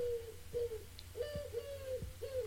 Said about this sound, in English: Uh, the collared dove, and I'll just play it in the background here. That sounds quite far in the background. There we go.